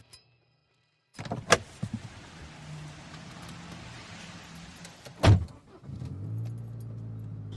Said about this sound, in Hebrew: כבר עברה שעת הפקקים בכביש החוף צפונה, והנה אני עולה לאוטו לצורך נסיעה צפונה לסכנין, מקום בו גדלתי ויגדל את הילדים שלי בהמשך.